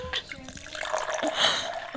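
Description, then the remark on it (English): Mimosas are poured into glasses, a steady splashing hiss that swells louder near the middle, with muffled voices murmuring in the background. “yes, we pouring drinks.”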